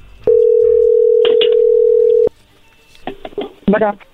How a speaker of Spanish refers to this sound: A ver, bueno, ya se está marcando. No haga ruido, por favor.